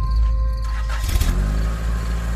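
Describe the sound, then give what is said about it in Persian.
A car engine turns over with a brief grinding crank, catches, and settles into a steady low idle as the car begins to pull away for a short drive, fairly loud with no voices. “ماشین رو برداشتم و رفتم یه دور زدم”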